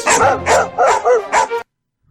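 A husky barks and yowls in five quick, loud bursts with a slightly howling, talkative tone, no other sounds around it, then falls silent.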